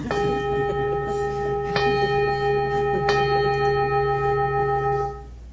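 A bell rings out with a sustained, shimmering tone, struck again twice at steady intervals so the resonance layers and lingers before fading near the end. Fairly loud, with no talking.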